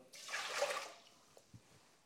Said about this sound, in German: Weil wir geben nämlich noch die zweifache Menge Wasser dazu. Das heißt, eine Tasse Reis, drei zwei, Tassen. Zwei Tassen Wasser.